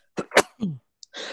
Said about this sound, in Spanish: Salud. God bless you. God bless you. Gracias.